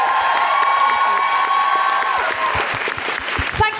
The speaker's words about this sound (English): Big round of applause for Sabrina Mahfouz.